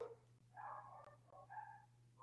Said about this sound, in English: I don't know if you can hear the dogs barking, but I do apologize They are going absolutely rampant upstairs.